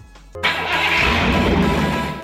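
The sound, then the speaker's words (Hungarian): A short radio jingle for a morning car segment opens with a sudden car engine starting, then a loud, steady revving roar that holds for a couple of seconds before cutting off. No one speaks. “egy rövid zene után innen folytatjuk.”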